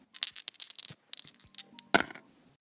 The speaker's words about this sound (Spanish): Es momento de lanzar los dados y cayeron